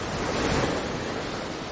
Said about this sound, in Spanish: Desde la orilla, el mar se siente así.